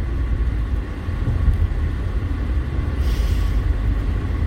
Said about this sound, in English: That's the gearbox, by the way. I'm shifting. The phone's up high, but I'm showing where the shifting gear is, you know?